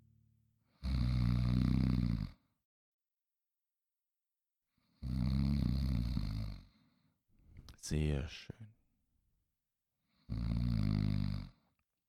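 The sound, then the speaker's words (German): Several voices together imitate loud snoring in three long, rumbling bursts separated by pauses, with a brief spoken remark between the second and third. “Könnt ihr auch schnarchen wie eine Königin, so vielleicht ein bisschen höflicher oder so?”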